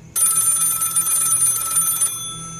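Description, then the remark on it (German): A telephone bell rings continuously for about two seconds, a loud, bright metallic trill that stops abruptly, leaving a faint low hum behind. “das Telefon da, war das vorhin auch schon da? Keine Ahnung, aber geh ran.”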